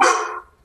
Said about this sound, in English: Sorry about the dog. It's okay.